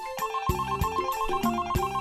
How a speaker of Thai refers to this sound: ขณะที่ลุงทองดีกำลังนั่งกินข้าวเย็นอยู่นั้น ก็ได้ยินเสียงโทรศัพท์ดังขึ้น ลุงทองดีจึงได้ลุกจากโต๊ะกินข้าวและเดินไปรับโทรศัพท์